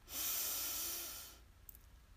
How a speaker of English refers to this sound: So let's breathe in and out. Ah. Breathe in and out. Ah. And our third and final breath together. Breathe in